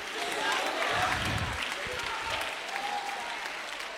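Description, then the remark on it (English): A church audience claps their hands and shouts during a sermon in a dense, sustained burst of applause, with scattered voices calling out and shouting underneath the steady clatter throughout. “If you believe it, clap your hand and shout, I'm too close now.”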